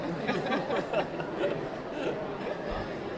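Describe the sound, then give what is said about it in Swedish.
A steady murmur of many overlapping voices of people mingling at a book fair, with scattered chuckles and laughter rising out of the crowd noise, moderately loud and continuous throughout. “Det börjar bli mingel runt oss så att snart hör ni inte vad vi säger ändå.”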